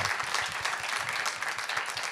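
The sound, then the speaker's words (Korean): A crowd claps steadily throughout in applause for the elderly guests, a dense wash of many hands with no pauses or voices rising above it. “우리 어르신분들께도 한번 박수 한 번 좀 부탁드립니다.”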